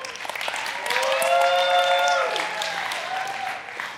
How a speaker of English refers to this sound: Hey, before we begin, uh, I want to ask you guys to give a big round of applause